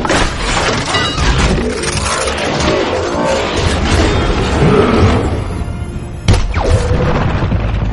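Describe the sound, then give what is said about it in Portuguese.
Two giant robots fight in a relentless, loud barrage of booming crashes and shattering smashes, dense, with one especially sharp impact near the end and no voices. “Meu amigo, imagina dois robôs gigantes caindo na porrada. É isso, é isso aí. Tu não vai entender. É! Você só vai ouvir.”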